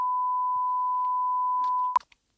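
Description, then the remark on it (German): A steady, unbroken censor beep at a single pitch bleeps out a phone number, holding for about two seconds, then cuts off sharply, followed by brief clicks and faint fragments of sound. “Ja, ich nenne die mal eben, aber die muss dann gepiept werden, bitte.”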